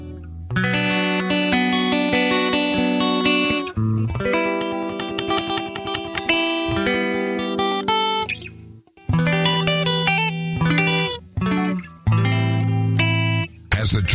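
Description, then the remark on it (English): A loud, heavily processed electric guitar riff with dense sustained harmonics and driving rhythm plays alone, breaking off briefly a few times before resuming, like a short musical break sting. “So when you hear the music, um, there we go.”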